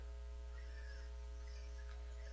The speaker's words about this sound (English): In our house, and you don't have to do this, but in our house, when we hear sirens, we take a moment to pray. Because somebody's in trouble, and somebody's taking time out of their Sunday to go help.